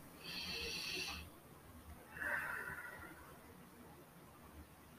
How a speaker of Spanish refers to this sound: Tomamos otra respiración.